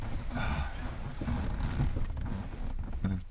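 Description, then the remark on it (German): Continuous creaking and rustling of a padded armchair without a headrest shifting under the weight of a person sitting in it, with a few sharper creaks near the end and faint voices in the background. “Das ist echt ein Sessel hier, wo ja. wir drin sitzen. Man hört das vielleicht auch”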